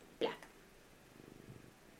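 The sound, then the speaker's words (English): A cat named Carter purrs softly, a faint, steady rhythmic rumble, preceded by a brief sharp rustle or click near the start. “I can hear Carter purring from here.”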